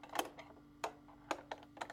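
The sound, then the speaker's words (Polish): A key is turned to the right in a door lock with a series of sharp, quiet mechanical clicks, five or so spaced irregularly over two seconds, with no voices. “Coś przeskakuje. Coś strzela. Coś zmienia położenie.”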